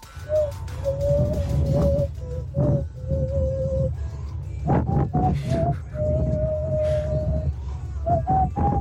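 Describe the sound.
A person imitates a fujara shepherd's flute with the mouth, holding breathy, hooting tones that step up and down in a slow melody over a rumbling undertone, fairly loud, with no talking.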